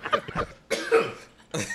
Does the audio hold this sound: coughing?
yes